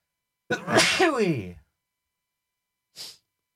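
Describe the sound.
One loud sneeze with a strong voiced burst, followed after a brief pause by a short, breathy sniff.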